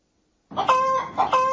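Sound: chickens clucking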